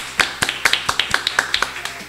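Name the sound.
hand clapping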